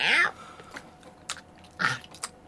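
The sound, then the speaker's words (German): Crunchy chewing and biting, a handful of sharp, irregular crunches spaced about half a second apart, with a brief vocal sound at the start, as a tomcat eats the contents of a St. Nicholas boot. “Ich esse. Ja, das kann man hören.”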